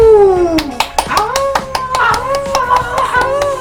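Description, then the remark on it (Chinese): Quick, steady hand claps, about four per second, keep a brisk rhythm for several seconds while a voice sustains and slides through wordless tones over them. “掌声鼓励鼓励！”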